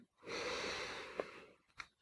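A long, deep inhale drawn in through the nose during a guided breathing exercise, lasting over a second with a hissing, airy texture, followed by a couple of short sniffing catches.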